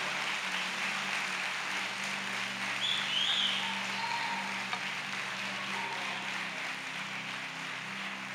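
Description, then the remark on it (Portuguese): An audience applauds the Lord during a church service, the dense wash of many hands clapping holding at an even level for the whole stretch with a low hum underneath and no one speaking. “Só você que confia no Senhor e sabe que o Senhor é capaz de fazer tudo na sua vida, aplauda o Senhor Senhor, em nome de Jesus.”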